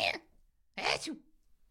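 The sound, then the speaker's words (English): A voice imitates a sneeze: a sharp breathy burst, a short pause, then a louder explosive sneeze ending in a brief yelping, pitched cry, more a yelp than a yell. Fairly loud, no other talk. “Yeah, um, I feel like I yell when I sneeze. Right? Yeah, it's it, it sounds like a yelp more like a more than a yell.”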